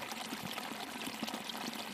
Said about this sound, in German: Für die Aufnahme bin ich tief in den Wald hineingegangen, über weiches Moos und durch dichtes Gestrüpp, bis ich am Wasserfall war. Ich habe mich auf einen Fels gesetzt und das Murmeln des Wassers aufgenommen.